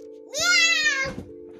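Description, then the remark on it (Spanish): A young child, asked how the cat goes, mimics a cat with one drawn-out, rising meow, fairly loud, over a faint steady hum in the background. “¿Y cómo hace el gato?”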